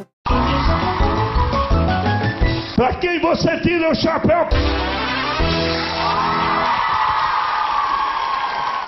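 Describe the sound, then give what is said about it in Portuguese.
A loud, busy jingle for Raul Gil's show segment 'Pra Quem Você Tira o Chapéu' plays for about nine seconds, with dense music, whooshing and screeching effects, and a voice calling out the segment's title partway through. “A hora que a gente chamar a vinheta aqui, você vai se lembrar também.”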